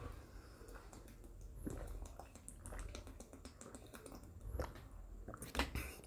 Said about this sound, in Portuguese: tomando um pouco d'água, né? Se refresca aí, pô. Refresca, toma um pouquinho de água, né? Toma uma água aí pra você, né? Não, não ficar desidratado. Fica hidratado, toma um golinho d'água, tal, não sei o que.